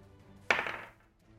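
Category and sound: household object, twenty-sided die being rolled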